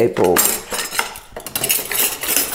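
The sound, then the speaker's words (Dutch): A metal spoon scrapes and clinks through a thick simmering sauce with green and red peppers in a pan, making four wells for eggs, several quick strokes with a faint bubbling underneath and no voices. “vier kuiltjes in mijn mengseltje. je hoort hem pruttelen.”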